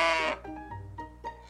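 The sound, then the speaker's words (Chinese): A cow, Lotte, moos on a farm: a loud, bright, harmonic call bursts out first, then trails into quieter, lower lowing with a short swell near the end. No one speaks. “看，每天晚上，可怜的邮递员都会做到恐怖的噩梦，梦里出现的都是洛特的声音。”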